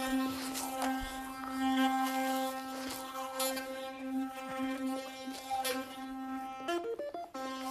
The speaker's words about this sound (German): Fühlt sich so komisch an, sein Handy an seinem Mund zu halten, während man Zähne putzt.